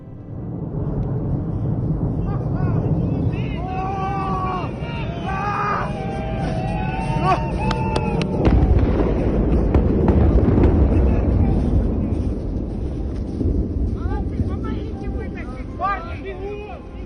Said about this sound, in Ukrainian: На відео, знятому на мобільний телефон чиїми тремтячими руками, видно щось е, схоже на дві палаючі комети, які летять над землею. Харків'яни, усвідомлюючи всю важливість цієї миті, не стримують овації.